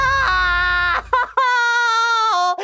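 A loud, high-pitched scream from backstage at a theater in Forestville, held in two long, sustained wails separated by a brief catch of breath, the pitch dipping slightly at the end, with no talking.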